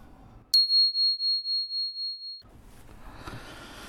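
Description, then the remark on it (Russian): A telephone rings at a polyclinic with a single high, bell-like tone lasting about two seconds, pulsing rapidly in a steady warble, loud and alone before it cuts off into faint background noise. “О, уже звонят.”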